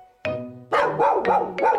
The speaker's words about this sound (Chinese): 于是他对着河面汪汪大叫。